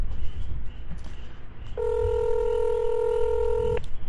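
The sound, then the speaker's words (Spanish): A phone call ringing: one steady electronic ring tone holds for about two seconds over a low background rumble, fairly loud, with no one speaking. “él lo va a coger”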